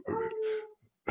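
A dog named Uno lets out a single drawn-out, high whimpering howl lasting under a second, moderately loud, as he tries to get the other dogs to play with him, followed by a brief rustle and a short burst of noise.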